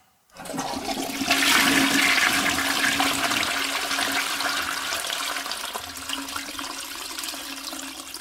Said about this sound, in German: Ich würde sagen, das ist eine schöne, saubere deutsche Toilette. Das ist falsch, das ist eine amerikanische Toilette.